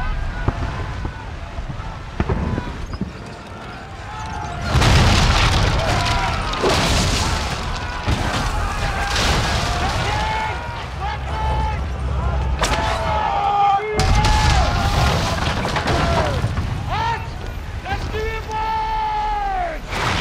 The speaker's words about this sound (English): And then you hear these sounds from outside, and these people all run outside and they run up this hill, and then you come over the hill, and there's this gigantic chaos, this battle of ships going on in, in the sea.